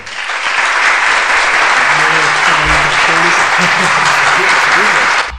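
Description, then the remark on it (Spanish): Loud, sustained applause from a group, dense clapping spread across the whole clip at an even level, with faint voices murmuring underneath. “Vamos a dar un aplauso por esto.”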